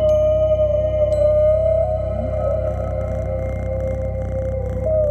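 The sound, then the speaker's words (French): A cat purrs steadily, a continuous low rumble lasting the whole stretch, with a faint sustained tone humming faintly behind it and no voices. “Plus près de nous et plus pratique pour établir une connexion animale-musicale, le ronron du chat.”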